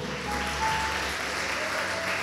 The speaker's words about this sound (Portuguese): Aleluia! E pode aplaudir a Jesus bem alto.